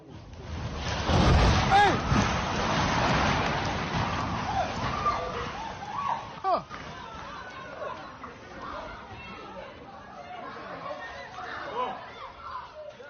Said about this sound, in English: The hashtag Cape Storm trended in South Africa for days, one video shows a three story building suddenly collapsing into a cloud of dust.